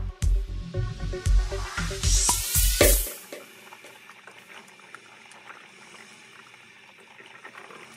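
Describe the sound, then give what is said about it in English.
A tea kettle boils with a loud, bubbling rumble and rising hiss for about three seconds, then cuts off abruptly, leaving a faint, quiet simmer; a found sound worked into a music track by HRN engineer Armen Spengen. “The pop from a bottle of Snapple, a hiss from a soda stream, the scream of a tea kettle.”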